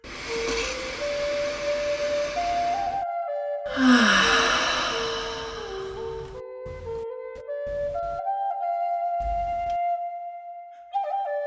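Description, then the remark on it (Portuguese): A long, deep breath drawn in, a short pause, then a slow, audible exhale, fairly loud, over soft sustained tones of gentle background music that continue afterward. “Faz uma respiração profunda.”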